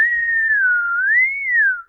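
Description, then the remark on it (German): A person whistles one steady, sustained high tone, gently wavering up and down in pitch for nearly two seconds, mimicking tinnitus ringing in the right ear. No talking accompanies it. “Selbst wenn ich alles ausmache, hast du dann immer auf dem rechten Ohr so ein schönes, äh, piepsiges Vögelchen, was jetzt halt nur”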